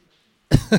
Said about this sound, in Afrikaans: ek sien ek gaan nou hier begin hoes.